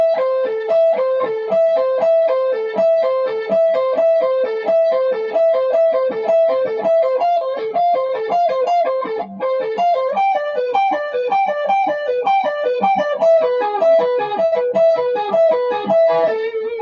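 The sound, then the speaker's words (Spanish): A distorted electric guitar plays fast, continuous arpeggios in the style of a guitarist, notes cascading up and down in a steady rhythm at a loud, even level with no one speaking. “Bueno, esta sería una idea usando arpegios al estilo de ….”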